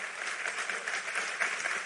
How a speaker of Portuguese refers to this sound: Vamos aplaudir ele aí por causa disso?